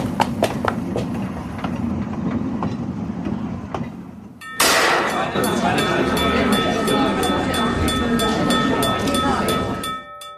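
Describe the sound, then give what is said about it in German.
An electric tram rumbles along steadily, its wheels clicking rhythmically over rail joints; midway it grows louder and a high motor whine joins in. “Theresia Janel war an diesem Premierenabend der Oper Nausika dem Gunkel heimlich gefolgt, der zur Heimfahrt die elektrische Straßenbahn nahm.”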